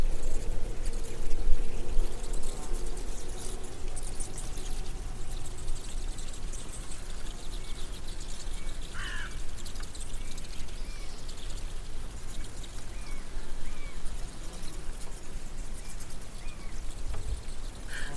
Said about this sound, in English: And eventually traced the noise down to a colony of bats squeaking during the day, just chattering to themselves. So here's bats talking, bat chat.